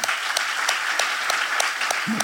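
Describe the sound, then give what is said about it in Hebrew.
A crowd applauds steadily, a dense wash of clapping with sharper claps punching through in a regular rhythm, and a brief voiced sound near the end. “אנחנו מוחאים לך כפיים, אחי.”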